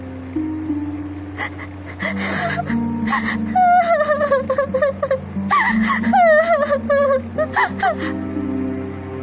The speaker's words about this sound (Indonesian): Mendengar itu semua, Gretel mulai menangis.